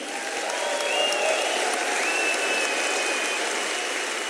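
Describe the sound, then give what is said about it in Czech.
A large audience applauds Sir Michael Caine steadily at the opening of the 55th Karlovy Vary International Film Festival, a dense wash of many hands clapping at an even, sustained loudness, with a few faint high whistles or tones rising above the clatter. “That's the biggest applause I've ever had.”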